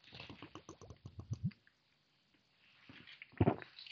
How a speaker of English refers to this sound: hold on, I'm trying to drink my water.